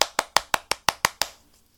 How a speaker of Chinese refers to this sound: 让我们来一点掌声加尖叫！呼呼！